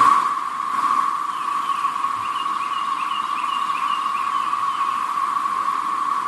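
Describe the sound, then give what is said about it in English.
A loud, unbroken droning buzz of many cicadas calling together, a dense steady chorus that holds the same pitch and level throughout with no pauses and no voices. “That is the sound you're going to hear. That sounds and like a lot I, of cicadas.”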